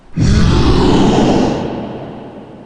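A deep, monstrous howl erupts suddenly and loudly, holding its rumbling low roar for over a second before slowly fading away. No one speaks.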